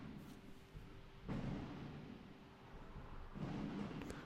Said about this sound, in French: et puis vous entendrez derrière euh, le feu d'artifice. Voilà. Donc je sais pas si tu l'entends.